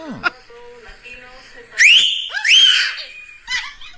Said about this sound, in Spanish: Los mandamos a que le chiflaran, le chiflaron.